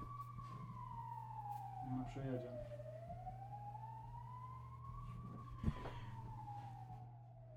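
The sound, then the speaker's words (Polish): An ambulance siren wails past in a slow rising and falling sweep, loud, over steady low traffic rumble, with brief bits of talking underneath. “Tak, tak, czekam aż przyjedzie karetka, bo to się nagra.”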